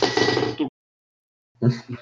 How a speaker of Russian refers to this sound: Как будто кастрюля.